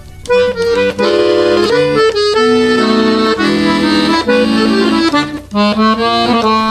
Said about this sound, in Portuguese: a gente pode escutar alguma música agora? Pode sim. Vamos embora.